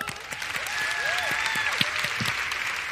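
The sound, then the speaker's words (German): A crowd claps steadily in a dense, continuous patter of many hands, with a few voices whooping and calling out over the applause. “Großen Applaus.”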